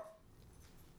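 A small pet dog whimpers faintly in the background, a thin high whine at the start fading into soft whining. No one speaks.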